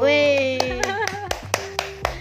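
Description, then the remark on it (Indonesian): A steady, rhythmic series of about eight crisp hand claps applauding a child, beginning a moment after a voice that vocalizes over the start and then fades under the clapping. “tepuk tangan”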